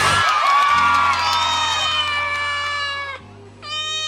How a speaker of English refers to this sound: Oh, hey there. This is my cat. He went missing. I've been looking for him all day. I'm glad I found him.